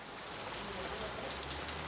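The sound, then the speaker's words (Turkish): Heavy rain mixed with snow pours steadily onto a hard surface in Eleşkirt district, Ağrı, Turkey, after four days of intermittent falls. It is a dense, even hiss with scattered pattering drops, fairly loud throughout, with no voices. “Dört gündür aralıklarla devam eden karla karışık yağmur Eleşkirt ilçesinde vatandaşa zor anlar yaşattı.”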